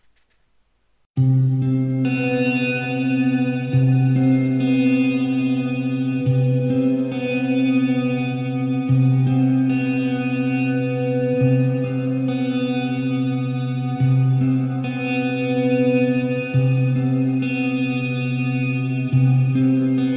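Ambient electronic music begins after a brief silence: sustained, layered synth tones with echo and chorus effects, shifting chords roughly every two and a half seconds at a steady, moderate level.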